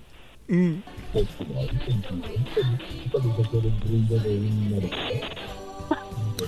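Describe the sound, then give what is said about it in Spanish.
A child gives a short, yelping imitation of a dog's bark near the start, made on request, followed by steady talking and vocal sounds that continue to the end. “¿Puedes hacer el ruido de un perro?”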